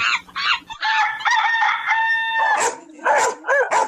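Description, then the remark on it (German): A rooster crows loudly, one long drawn-out crow framed by shorter squawking clucks before and after. No voices are heard. “Nach Pferd und Ziege als siebter und achter hechelten der Affe, der Hahn und der Hund über das Ziel.”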